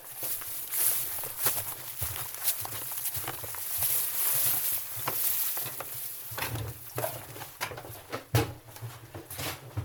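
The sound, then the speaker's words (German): Steady footsteps thud and creak across the wooden floorboards of a farm barn, with cows below, at a walking pace, with a low hum and faint background noise throughout. “Hier laufen wir auf Holzdielen.”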